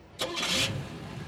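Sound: car engine starting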